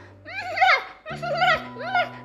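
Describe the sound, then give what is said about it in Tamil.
A voice imitates the goats of a flock bleating in fear as they scatter from a lioness that has entered the flock: three quavering, wavering bleats in quick succession, fairly loud, over a low steady hum. “அப்படின்னு பயத்தில் கத்தி இந்த பக்கம் அந்த பக்கமும் சதறி ஓடிச்சுங்க”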